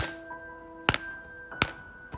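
Two soft, slow knocks, spaced well apart, demonstrating how someone knocked quietly, over a faint steady hum with a few quiet tonal lines in the background.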